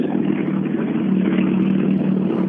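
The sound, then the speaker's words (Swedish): The engine of an older Mitsubishi car from Dannevalls garage, arriving, drones steadily for a couple of seconds, a low, even hum with a rough rumbling edge that stays loud and constant, with no voices. “Men eh, eh, nu är det en lite äldre Mitsubishi från Dannevalls garage som har kommit hit.”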